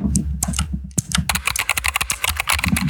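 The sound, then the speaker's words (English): Rapid keyboard typing as someone slams the keys, a dense flurry of sharp clicky keystrokes, loud and crisp, starting sparse then becoming a fast continuous clatter with no voices. “got a lot of ASMR of the clickety clackety.”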